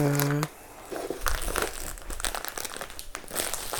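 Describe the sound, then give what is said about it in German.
A bag of panko breadcrumbs is crumpled up to be thrown in the trash, a sustained, irregular crinkling and crackling lasting several seconds after a brief voice at the start. “Und eine Tüte Panko. Oh ne, die kommt auch in Müll.”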